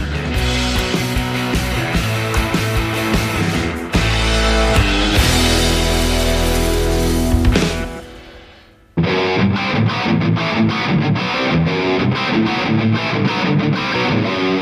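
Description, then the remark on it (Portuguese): A loud, distorted rock jingle with heavy guitars and driving drums, cutting out briefly near the middle before crashing back in at full volume. No one speaks. “Então nós vamos fazer essa parte 2 aqui no nosso podcast, logo depois da vinheta, beleza?”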